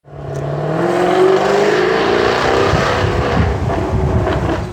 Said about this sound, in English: Snap, crackle, and pop. Yeah, that's an amazing concept. That there's a, button on the dash that gives it its proper sports exhaust sound, and it really does make a difference.